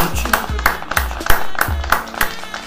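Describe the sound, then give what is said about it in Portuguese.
Steady rhythmic clapping on a regular beat, punctuated by deep bass thumps and a tonal musical backing, a short, lively applause jingle at a fairly loud level, played as a salute to the Troféu Chutão de Ouro 2020. “hoje o nosso tema é o troféu Chutão de Ouro 2020, em que vamos eleger uma salva de palmas ao troféu Chutão 2020.”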